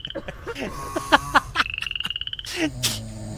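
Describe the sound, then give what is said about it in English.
Several frogs croak in a busy chorus, with rapid rhythmic trills and short chirping calls overlapping one another, no talking. “it's like the frogs.”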